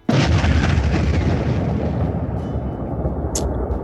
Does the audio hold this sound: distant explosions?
yes